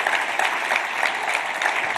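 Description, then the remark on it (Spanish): A crowd applauds steadily after words of praise to God, a dense wash of many hands clapping at an even, sustained loudness for the whole stretch, with no voices standing out. “Un aplauso.”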